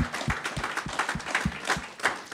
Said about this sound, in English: You have the opportunity for greatness. Come on, clap your hands if you believe it.